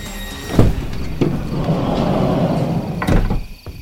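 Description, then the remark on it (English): A heavy truck trailer door is hauled open, starting with sharp metallic clunks, then a sustained rolling rumble and rattle, ending in a loud bang. No one speaks. “quite sure of what the truck was carrying, I opened the trailer.”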